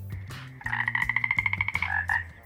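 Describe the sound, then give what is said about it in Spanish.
A large toad calls with a deep, resonant croak, broken into a rapid run of throbbing pulses over a low, twangy drone. It is fairly loud, with no one talking. “Entonces se escuchó el llamado de un enorme sapo como si alguien pulsase la cuerda gruesa de un violón.”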